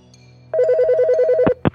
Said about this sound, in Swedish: Och precis då ringer Pelles telefon.